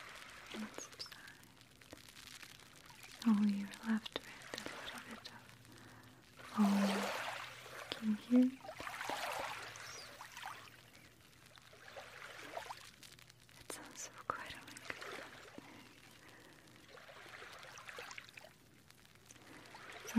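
Soft sea waves wash in and pull back in broad, hissing swells that rise and fade several times, with faint, brief low sounds scattered underneath.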